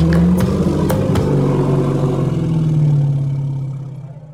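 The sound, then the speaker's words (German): A deep, rumbling growl from an elephant, low and steady for several seconds before it slowly fades away, heard on its own with no voices. “Der Elefant war inzwischen gelangweilt und unruhig geworden und gab ein leises Knurren von sich.”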